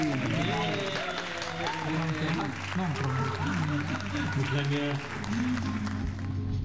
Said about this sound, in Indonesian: Tepuk tangan dulu buat itu